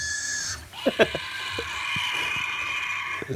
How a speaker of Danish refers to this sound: Øh, jeg har fundet et dinoskrig. Du har fundet et dinoskrig? Nej, det er rigtig vigtigt. Men det er heller det er den forkerte dino. Det er fordi, det lyder mere som Theodactylus, vil jeg sige. Det er den flyvende.